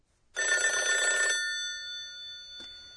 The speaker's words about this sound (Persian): خب میتونین تصور کنین که این واژه که الان براتون پخش میکنیم مربوط به چه نوع صداییه؟ پرورورو صدای تلفن این؟ درسته پرورورو